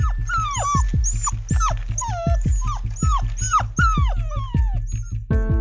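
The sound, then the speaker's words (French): A dog whines and yelps over and over, high pitched falling cries roughly twice a second, fairly loud, with a steady low thumping pulse underneath. The dog barks incessantly in front of a pastry shop while searching for its owner. “Un chien cherche désespérément son maître, un jeune Allemand, un certain Alaric, qui étudie tout près d'ici.”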